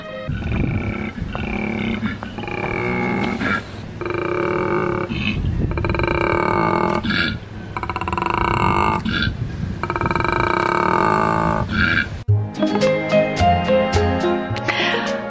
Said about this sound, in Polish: A czy wiecie, do kogo należy ten ryk? Nie, to nie żadne groźne wielkie zwierzę, a mały koala.